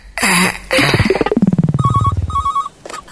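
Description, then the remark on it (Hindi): A loud, busy burst of electronic tones and a rapid descending buzzy chirp, then a repeating high beeping ring pattern, like a phone ringtone going off with no one talking. “अरे फोन जल्दी उठाओ अब मेरे पास अरे वक्त बहुत कम है”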